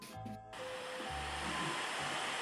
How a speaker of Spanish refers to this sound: Se escucha el mar.